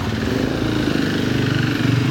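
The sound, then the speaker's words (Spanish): A loud motorcycle engine rumbles steadily outside with a low, throbbing drone, holding strong throughout with a slight swell toward the end, as if passing by. “A la gente hoy ha dicho, vamos a sacar nuestras motos grandes y nuestros coches ruidosos.”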